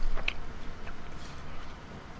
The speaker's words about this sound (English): Foolish of me to chew the same time that you put yours in. um, yeah, very very chewy.